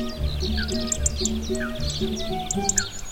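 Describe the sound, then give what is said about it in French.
Many small birds chirp and twitter continuously outdoors by a lake, quick high calls overlapping, with a steady low rumble beneath them. “Et je peux vous dire que les poissons et autres animaux ne s'en plaignent pas, bien au contraire surtout les oiseaux que l'on entend discuter à longueur de journée.”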